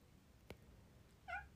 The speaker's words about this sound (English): Oh, here comes the cat. Cat's on the.